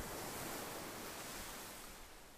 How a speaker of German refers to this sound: Und du hörst den Wind Du hörst die Wellen rauschen.